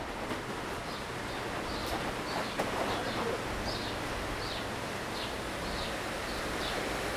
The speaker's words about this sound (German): Nur der Mühlbach rauscht hier wild vorbei.